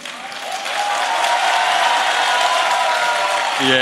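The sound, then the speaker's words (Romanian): The boys in an audience in Iași applaud steadily, a dense wash of clapping that swells in the first half second and holds loud and even for several seconds. “După numărul de aplauze, am vrea să știm dacă sunt mai multe fete decât băieți în acest moment, acum la Iași.”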